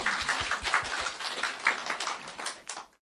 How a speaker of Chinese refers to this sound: 来，掌声。归给我们的主